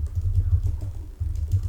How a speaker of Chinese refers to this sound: 哇！你会录到，我会录到我的敲键盘的声音